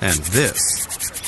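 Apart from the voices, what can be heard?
skin being scratched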